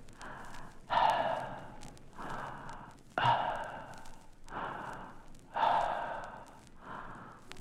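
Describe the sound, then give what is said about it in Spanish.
Slow, deep breathing only through an open mouth: about three full cycles of loud, airy inhales alternating with softer, drawn-out exhales, with no talking. “Abra la boca y respire más o menos así. Observe bien, esta respiración tiene que ser hecha solamente por la boca.”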